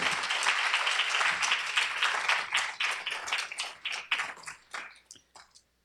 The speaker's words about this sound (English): So please give a round of applause to David.